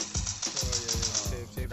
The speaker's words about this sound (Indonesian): ke kendor coba mana tembakannya gue pengen denger nah. tembakannya kecil amat suaranya.